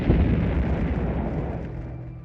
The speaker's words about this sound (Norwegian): Etter flere timer med slukningsarbeid oppstår det plutselig en kraftig eksplosjon i siloen. Så blir vi varig da et forferdelig sug, og så et voldsomt drønn.